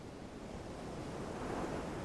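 Ocean waves wash steadily onto the shore in a continuous, broad rush of surf, with a slight swell building toward the end. Nobody speaks.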